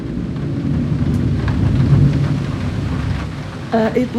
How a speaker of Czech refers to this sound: Ten den hodně pršelo.